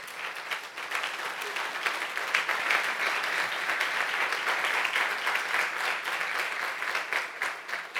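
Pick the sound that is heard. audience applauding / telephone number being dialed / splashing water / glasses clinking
audience applauding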